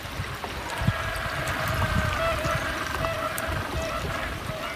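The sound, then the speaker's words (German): Constant chatter of a penguin colony at Port Lockroy, with croaking calls of visiting cormorants, carries over steady wind rumble and soft lapping waves, an even outdoor backdrop with no talking. “Vor allem aber hört ihr dieses ständige Geschnatter der Pinguine.”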